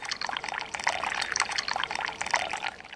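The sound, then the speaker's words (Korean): Drip coffee pours steadily into a cup for a few seconds while a café royal coffee cocktail is made in Paris, a continuous splashing trickle with slight bubbling fluctuations and no voices. “드립 커피를 부은 잔에.”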